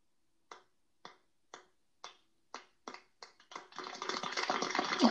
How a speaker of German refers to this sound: Wie das so ganz leise anfängt, so einer klatscht, über bei diesem Meme.